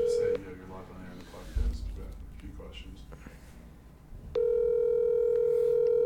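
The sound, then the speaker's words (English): A phone line on speakerphone rings out with a steady electronic ringback tone, clipped at the start and then sounding again loud and unbroken at the end, with muffled room noise and faint voices between. “This is awkward if he doesn't answer. Your call has been forwarded.”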